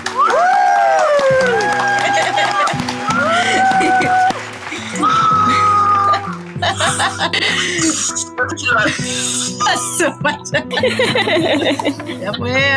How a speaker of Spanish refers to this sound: Palmas para ella, chicas.